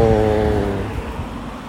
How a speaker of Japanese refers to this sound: ああ車が来ます皆さん耳を塞いで